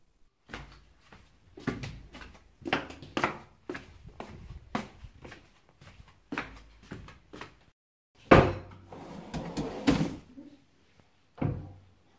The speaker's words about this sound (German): Jetzt schaue ich mal in den Mülleimer in der Küche.